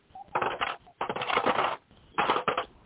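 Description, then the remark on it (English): Metallic rattling and clinking of coins, totaling $3.32, being counted and handled, in three bursts with short pauses between, fairly loud, with no one speaking. “Okay, well, we got $3.32 in coins.”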